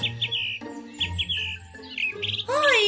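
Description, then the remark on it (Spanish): Birds sing in a forest in the afternoon: quick, bright chirps repeat in short bursts throughout, some clear, ending in a busy flurry of trills over a steady low background hum. “qué lindo está el bosque! Mis amigos cantando para alegrar más la tarde.”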